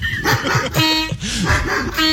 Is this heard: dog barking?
yes